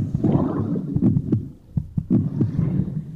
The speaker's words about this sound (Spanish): Los primeros sonidos que percibe el ser humano en estado fetal son los latidos de su madre y los de su propio corazón.